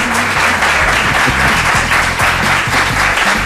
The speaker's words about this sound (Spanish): Pero era solo para Gallego el aplauso.